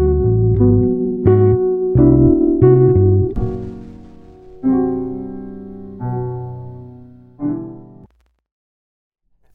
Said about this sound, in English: Jazz chords and keys.